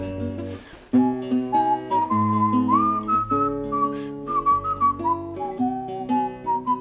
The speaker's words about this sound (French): sait siffler